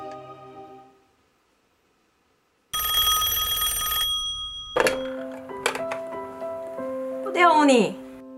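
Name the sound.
telephone ringing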